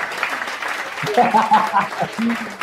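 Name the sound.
applause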